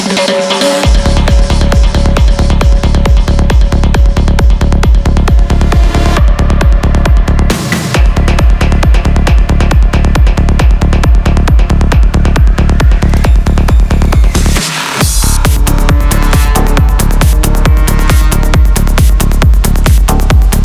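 A loud electronic dance track pounds along with a steady, driving kick beat and heavy bass, dropping out briefly twice for quick breaks before the groove slams back in. No voices are heard.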